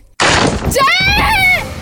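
A sudden loud burst of noise gives way to a woman's high-pitched scream that rises and wavers for about a second before cutting off, heard alone.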